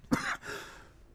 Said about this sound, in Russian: ну, откашляйтесь, ничего страшного пока. Э, что, Бывает.